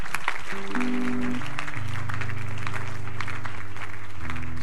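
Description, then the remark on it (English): An audience of Christians claps for Jesus steadily throughout, a dense crowd of hands, while sustained keyboard or organ chords hold underneath. “Oh, the Christians are clapping for Jesus.”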